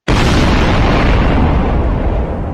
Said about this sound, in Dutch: ontplofte 90.000 pond buskruid. Dat lag opgeslagen in het kruidhuis van Delft. Het verhaal gaat dat de knal tot op Tessel te horen was, ruim 100 kilometer verderop.